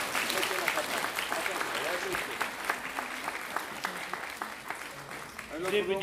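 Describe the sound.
An audience claps steadily for several seconds, a dense crackle of many hands at an even loudness, with a few voices murmuring underneath and a brief cheer near the end.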